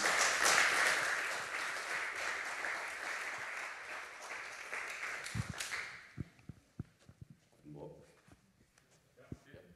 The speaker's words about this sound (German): vielleicht heißen wir ihn mal mit einem Applaus willkommen.